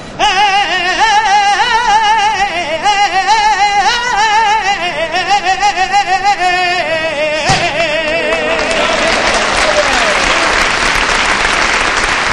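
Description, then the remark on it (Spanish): A lone voice sings a saeta, a long, wavering, ornamented melodic line, during a cofradía procession with the paso de palio of Nuestra Señora de los Dolores. A single thud follows, then loud, sustained crowd applause fills the final four seconds. “Finaliza esta saeta con aplausos, a pesar de que, como decíamos, el corte de la cofradía pues invita más bien a, que, no haya, aplausos, sí que canten pero que no haya aplausos.”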